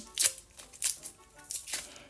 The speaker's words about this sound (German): Hier hört ihr das Rascheln. Rascheln.